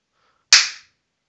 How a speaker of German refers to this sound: Und dann tue ich wieder klatschen. Pass auf.